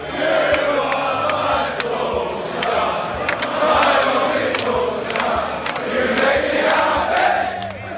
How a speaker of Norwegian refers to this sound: Og man kunne i tida etter også høre Solskjær-sanger bli sunget fra tribuner på Manchester Uniteds kamper.